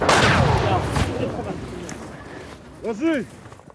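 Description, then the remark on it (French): A heavy artillery shell explosion bursts out loud, followed by a second sharp blast about a second later, as a news camera crew films in wide open country; the rumble fades, then a short vocal cry rises near the end. “Le caméraman continue de filmer et la deuxième explosion ne tarde pas à se faire entendre.”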